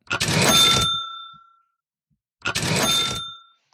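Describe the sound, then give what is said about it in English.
A bright bell rings twice, two separate metallic dings a couple of seconds apart, each with a sharp strike and a ringing tone that slowly fades, clear with silence between. “Yeah, I was heavily criticised this week because apparently I don't hear the second bell.”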